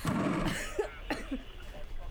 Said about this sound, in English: Okay, so I come out from under the chairs coughing.